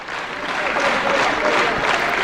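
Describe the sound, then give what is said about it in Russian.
A hall full of people applauding steadily, dense overlapping clapping that swells slightly and holds at a loud, sustained level: an ovation from the audience of the Leningrad television show Musical Ring in 1986, for a singer arriving in the hall. “И зал ей устраивает овацию.”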